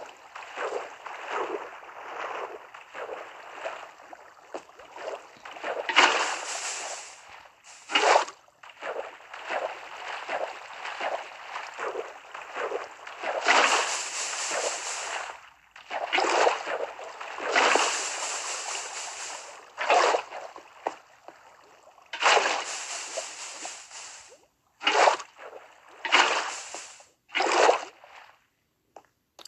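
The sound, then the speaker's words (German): Video game water pouring over lava to cover a ravine, turning it into obsidian, heard as a continuous watery rush broken by repeated louder sloshing, hissing bursts at irregular intervals, with no voices. “ich habe jetzt fast die gesamte Schlucht. Ähm, hier. Mit Wasser überdeckt.”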